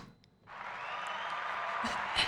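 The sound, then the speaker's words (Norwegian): A burst of recorded applause from an applause button kicks in after a short pause, a dense, steady wash of many hands clapping that holds at an even, fairly loud level to the end. “Bruk en applausknapp nå.”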